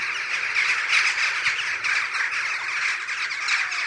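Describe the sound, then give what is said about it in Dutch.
A large flock of jackdaws calls continuously as they fly off, a dense, overlapping chatter of sharp squawks heard at a steady, fairly loud level throughout, with no voices. “als ze eenmaal dan met elkaar voorverzamelen, is het enorm gekakeld”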